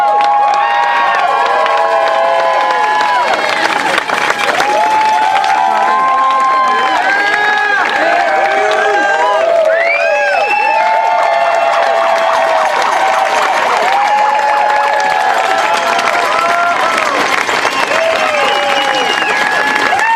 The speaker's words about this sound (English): 22 Western States 100 with women's champion Ruth Croft. Big round of applause.